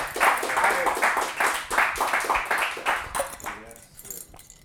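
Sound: audience applauding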